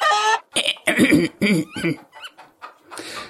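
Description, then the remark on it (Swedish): A voice mimics a hen clearing its throat before taking a note, a string of short, clucking, throaty bursts with a rough cough-like quality, fairly loud, ending in a breathy rasp. “Hönan harklade eh, sig och tog en ton.”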